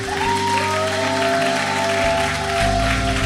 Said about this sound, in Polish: Ej, tak się nie klaszczę w tym kościele.